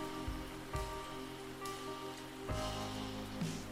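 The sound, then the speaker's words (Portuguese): Heavy rain falls steadily at a cemetery in a dense, constant hiss, with a few duller thuds of drops striking a surface. No one speaks. “A chuva está aumentando.”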